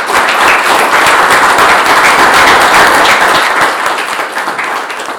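An audience applauds loudly for a guest at the end of a discussion, a dense, steady wash of many hands clapping that holds strong for several seconds before tapering slightly toward the end, with no voices over it.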